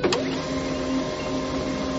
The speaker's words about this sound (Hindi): यह आवाज प्रिंटर के पास से आ रही थी पल्लवी जब प्रिंटर के पास गई तो उसने देखा प्रिंटर से ब्लैंक प्रिंट्स निकल रहे थे चंद्रशेखर के अंदर घुसते ही प्रिंटर अचानक बीच में रुक गया